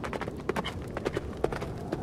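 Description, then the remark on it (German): A horse gallops hard and fast through a snowstorm, ridden by a king who whips it on mercilessly: a steady run of sharp, thudding hoof strikes on the ground with no voices over them. “Und der König preschte voran, sein Pferd gnadenlos anpeitschend.”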